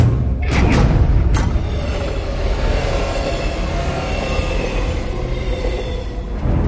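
A train rumbles steadily along the tracks with a heavy low-end roar, a few sharp clanks and thumps from the wheels near the start, continuing loud for several seconds.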